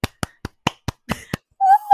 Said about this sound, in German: Ich möchte, dass du klatscht, weil ich glaube, so eine gute Überleitung hatte ich noch nie.